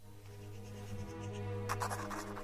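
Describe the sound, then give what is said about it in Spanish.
A woman writes a farewell letter to her husband by hand, the soft scratch of pen on paper becoming busier and more distinct toward the end, over a steady low hum. “Se juega en la película con los momentos en que ella la estaba escribiendo, los momentos en que la está leyendo el marido, los momentos en que se está ahogando porque se tira a un río y muere.”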